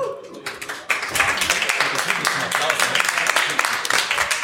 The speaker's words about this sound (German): Großen Applaus bitte.